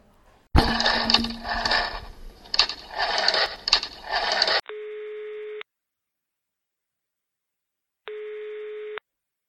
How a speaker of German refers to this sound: die Oma hat noch ein altes Telefon. Mit dem müssten wir doch telefonieren können. Ja, so könnte es gehen. Versuchen wir es. Wie ist die Nummer?